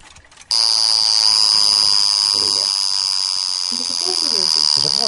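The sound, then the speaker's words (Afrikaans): An ordinary mechanical alarm clock bursts into loud, rapid, continuous metallic ringing after a short pause and keeps going, with a voice faintly audible underneath. “Eh, een gewone wekker. Doe hem het op en dan kan je nou horen.”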